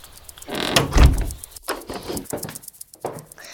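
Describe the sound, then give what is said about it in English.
A window is pushed open with a loud wooden scrape and a heavy low thunk, followed by a few lighter knocks and rattles as it settles. “I'll just open a window and.”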